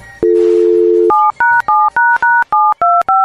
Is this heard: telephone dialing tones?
yes